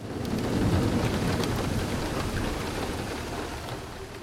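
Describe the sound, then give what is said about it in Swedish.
Heavy rain with thunder in the mountains of the Kazbegi region, Georgia; the rain pours down steadily and loudly, a dense hiss filling the whole clip, while a deep rumble of thunder rolls underneath, strongest early on. No voices are heard. “totalt regn, den, den, den maximala nederbörden.”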